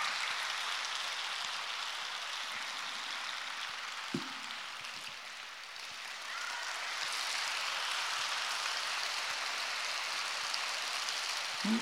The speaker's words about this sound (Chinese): 弄得像毛毛雨一样。谢谢大家啊。你知道吗？鼓掌是通经络，对心脏有好处，然后鼓励了别人，温暖了自己呀！